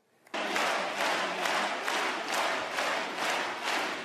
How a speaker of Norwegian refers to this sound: Støtteerklæringene fra partikameratene varmet nok da ekteparet Fillot ble møtt med stående applaus etter at Penelope Gate var blitt et fenomen.